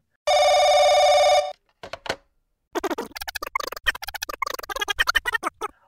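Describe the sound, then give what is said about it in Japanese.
A telephone rings once in a loud, steady electronic burst lasting about a second, an angry call from the talent agency Nakki belongs to, followed by a couple of brief clicks and then a stretch of busy, rhythmic tonal sound. “社長、ナッキーが所属する芸能事務所の方から怒りの電話がかかってきてるんですけど。”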